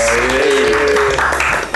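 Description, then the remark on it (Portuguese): A burst of loud, steady applause from many hands, a dense crackling wash that holds for nearly two seconds, with a brief voice audible over the opening second. “Palmas profissionais.”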